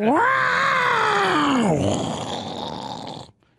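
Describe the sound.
A person imitates a lioness roaring: one long, loud, growling roar whose pitch slowly slides downward before trailing off into a breathy rasp after about three seconds.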